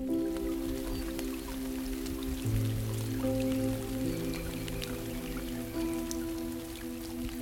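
Raindrops patter steadily onto a river, a dense scatter of small splashes and taps, with a continuous low hum running underneath and no voices.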